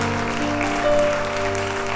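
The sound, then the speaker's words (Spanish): A large church audience claps steadily and continuously throughout, giving applause to the Lord during worship, a dense wash of applause with held keyboard or organ tones sounding beneath it. “Dale un aplauso al Señor en lo, Dale un aplauso al que vive.”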